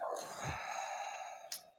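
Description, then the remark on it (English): A person imitates a long, deep, raspy breath, a single drawn-out inhale and exhale with a brief sharper puff near the end, moderately loud. “Um, but you hear this very deep breathing, and as you stand there playing,”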